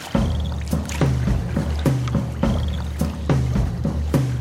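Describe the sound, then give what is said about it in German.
A paddle dips and pulls through water in a steady rhythm as a sea kayak about five metres long, spray deck closed, is paddled back into the mangroves in the afternoon. Each stroke is a soft splash followed by a watery swish, repeating about every half second over a low continuous rumble. “Ich schließe die Spritzdecke und paddle zurück in die Mangroven.”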